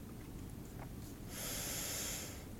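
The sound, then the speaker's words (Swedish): A forceful nasal breath, part of a breathing exercise, rushes out in a strong hissing burst midway, framed by quieter low rumbling breathing, with no talking. “Ja, men jag gillar, de här, jag gillar de här snabba tipsen, som andningen.”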